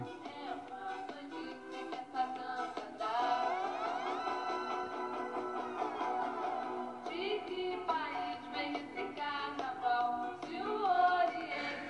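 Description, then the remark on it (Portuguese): A children's song plays continuously, with a group of kids and a woman singing a bright, lilting melody over steady instrumental backing, at moderate volume throughout. “é cantada, acho que tinha umas crianças e uma moça”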